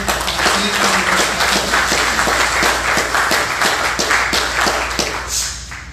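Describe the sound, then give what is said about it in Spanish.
Loud, sustained applause from a large crowd at a Christian sermon, called for by the preacher, dense overlapping claps filling the whole stretch before gradually thinning out toward the end. “¿No es maravilloso eso? un aplauso fuerte?”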